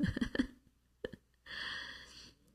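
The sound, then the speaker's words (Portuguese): Quiet, raspy snoring from two or more female dogs just behind the speaker: a few short snuffling puffs, then one longer wheezy breath, faint, with no talking. “Se vocês estiverem ouvindo o barulho, é minhas cachorras que estão roncando aqui atrás.”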